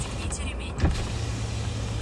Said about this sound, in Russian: Ну, э, что, проветрим чуть-чуть. Да, конечно. Можешь окошко даже открыть.